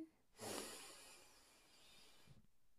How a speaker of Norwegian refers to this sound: Men før vi sier god natt, kanskje vi bare skal ta oss og puste et par ganger. Begynne med å puste inn